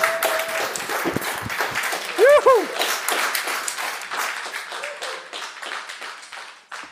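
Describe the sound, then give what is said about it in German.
A steady, irregular patter of hand clapping runs through the whole clip, sharp dense claps overlapping like a small round of applause, with a voice calling out cheerfully partway through. “Klatschen, das kann ich jetzt mit nicht drauf.”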